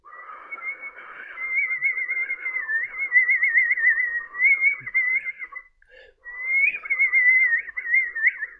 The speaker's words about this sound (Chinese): 蛇女是又吹起了口哨。